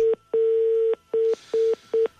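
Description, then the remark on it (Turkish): A telephone disconnect tone after a dropped call: five steady electronic beeps at one mid pitch, the second one long and the rest short, evenly spaced and clear with no talking. “Evet telefon kapandı bu arada.”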